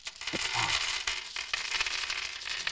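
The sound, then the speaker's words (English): Lots of dice of all different colours and shapes rattle and clatter inside a sack in a dense, steady stream of small clicks and scrapes, fairly loud and continuous for a few seconds, with no talking. “Look, they sound like dice, and if I can briefly take you with me, I can show you.”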